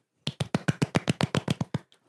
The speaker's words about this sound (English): I was like, "It brings up the energy." Yeah, I did the golf clap.